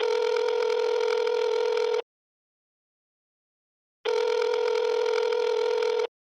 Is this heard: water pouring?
no